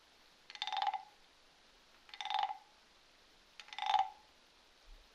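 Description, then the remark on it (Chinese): Three evenly spaced frog croaks, each a short buzzy, raspy burst with a steady mid-pitched tone. They stand alone against a quiet background with pauses between them. “三只小青蛙， 你继续的数着，数着你听到的青蛙叫声。”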